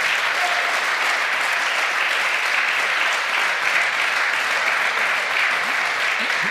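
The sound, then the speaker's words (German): An audience, including Schalke supporters up in the seats, claps steadily, a dense, even wash of many hands that holds at a constant level for the whole stretch, with no voices standing out. “Schalker da oben klatschen auch.”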